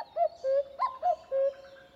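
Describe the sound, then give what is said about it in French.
A male common cuckoo calls its hollow two-note "cu-coo," the second note lower, repeated vigorously in quick succession in response to a female, clear, with no voices. “En deux notes, le mâle répond avec vigueur.”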